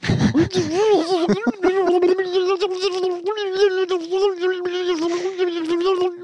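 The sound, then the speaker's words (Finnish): A man vocally imitates a dial-up modem connecting, producing a continuous warbling, screeching tone with wavering pitch and buzzy squeals, loud, lasting several seconds without any words. “Mutta hyvä, että sä pidät tuommoista pientä örinää tässä taustalla, niin ainakaan vittu mä pidän sitä ääntä, kun muistaakseni kun modeemi latas.”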